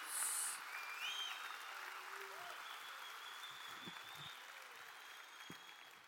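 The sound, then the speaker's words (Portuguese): An audience applauds the Lord during a church service, a dense, steady wash of many hands clapping at an even level for several seconds, with a few brief cries rising over it. “Aplauda ao Senhor, porque é verdade, em nome de Jesus.”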